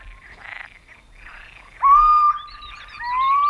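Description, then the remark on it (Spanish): A pulsing chorus of amphibians croaks steadily underneath, while clear, drawn-out high whistling calls rise over it in the second half. No one speaks. “Y al fondo un coro pulsante de anfibios.”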